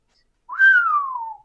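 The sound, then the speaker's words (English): One person whistles a single long note that jumps up quickly and then slides slowly downward for about a second, clear with no other sound, imitating one man in a crowd whistling instead of cheering or booing. “You just give a whistle.”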